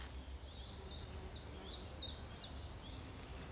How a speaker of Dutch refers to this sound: Chifchaf hoor ik, ik hoor voorbij.